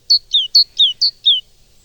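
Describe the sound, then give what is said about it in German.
A tit from Saxony, Germany, sings alone: three quick repetitions of a bright, high two-note phrase, the second note of each sliding downward, clear and fairly loud before falling silent. “Gemütlich eher die Sachsen, Meisen.”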